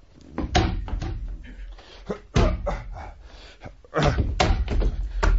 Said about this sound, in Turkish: Söylemiştim sana. Kırarım demiştim kapıyı.